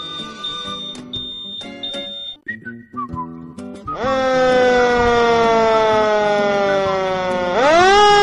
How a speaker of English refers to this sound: Look, here comes the fire engine, says one little monkey.